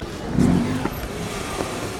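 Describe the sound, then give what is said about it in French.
A car engine revs amid steady street traffic noise in a town centre on a Saturday morning market day, its low hum swelling briefly before settling back into the constant background rumble of town. “Voilà un des principaux problèmes de rembouiller la circulation en cœur de ville.”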